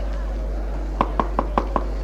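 knocking on a door

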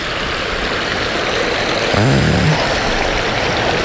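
flowing stream

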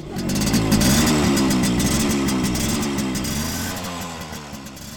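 motorcycle engine running

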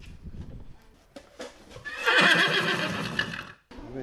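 horse whinnying

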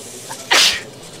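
a sneeze

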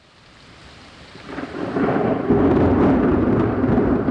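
thunder clap

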